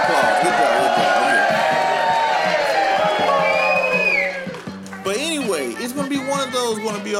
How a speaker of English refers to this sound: Or is it going to be Hillary Clinton? Round of applause for Hillary Clinton, everybody.